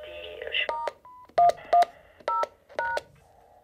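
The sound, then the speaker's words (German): A rapid series of touch-tone phone dialing beeps, about six or seven short tones in uneven rhythm, fairly loud, with a steady tone and faint background noise between them. “Wie kann man denn, wenn man diese Pieptöne hört, wie kann man denn, da klopft das Herz, das ist, das ist unglaublich, das ist so eine Aufregung, so eine innere.”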